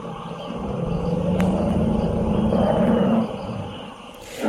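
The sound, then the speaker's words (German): A deep, sustained infrasound rumble from elephants communicating in Central Africa, only its highest parts audible, rolling low and steady for about three seconds before fading, with a faint outdoor background and no talking. “Und da hört man ja auch, die, ähm, da hört man die Elefanten ja auch, aber da hören wir quasi nur die höchsten Teile mhm, dieser Infraschallunterhaltung.”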